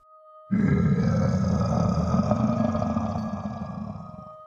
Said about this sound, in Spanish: Luego sus padres monstruos se irían a su habitación y dormirían con aquellos ronquidos de monstruo.